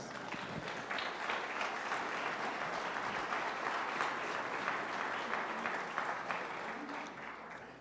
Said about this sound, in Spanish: Dele palmas.